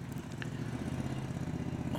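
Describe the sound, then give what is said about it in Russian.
A motor boat engine drones steadily, a low, throbbing hum with a rough pulsing texture that holds constant throughout, with no voices. “снова лодка поплыла.”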